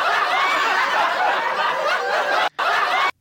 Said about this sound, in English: I now have my own laugh track.